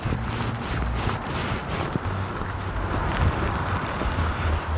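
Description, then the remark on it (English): Scratchy rustling of a worn jacket's fabric rubbing against a microphone as the wearer turns their head to look across a road, steady throughout with a few brushing swells near the start and a low rumbling undertone, no voices. “You can hear it rubbing on the on the microphone as I turn my head looking across the road.”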